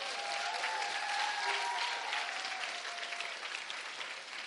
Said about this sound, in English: It's a good place to clap for Jesus.